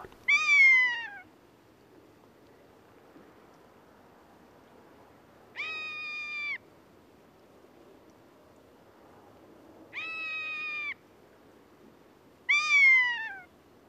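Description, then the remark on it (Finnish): A rough-legged buzzard gives four long, high, drawn-out mewing calls, each slurring downward, separated by several seconds of quiet with a faint rumbling background. “Piakanan ääni on pitkän oloinen korkea naukaisu.”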